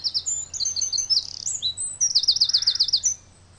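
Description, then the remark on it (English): A wren in Ireland sings loudly, a rapid, high-pitched cascade of trills and chattering notes pouring out almost nonstop before ending abruptly, with no voices present. “In fact, people welcome the wrens into their gardens.”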